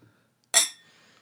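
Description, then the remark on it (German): A single bright clink of glasses touching in a toast, crisp, with a shimmering ring that fades over a fraction of a second. “Darauf möchte ich anstoßen.”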